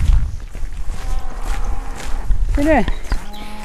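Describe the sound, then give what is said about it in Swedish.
A single drawn-out cow moo, distant and wavering in pitch, rises briefly out of a steady low rumble of outdoor background noise near the end; the cows are visiting from Nagu and spend the summer here on green pasture. “På avstånd hör vi kossorna råma.”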